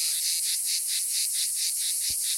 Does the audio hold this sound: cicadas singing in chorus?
yes